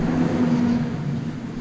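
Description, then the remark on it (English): A fire truck rumbles past on a side street, its heavy engine droning with a steady low hum and road noise that fades slightly toward the end; no siren is audible. “That was a fire truck.”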